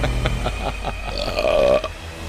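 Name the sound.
loud burp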